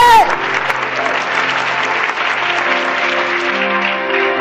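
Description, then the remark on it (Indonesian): An audience bursts into loud, sustained applause, a dense steady wash of clapping lasting several seconds, with faint tonal music or organ notes humming underneath. The applause is given to God during a sermon. “Tepuk tangan bagi Allah kita.”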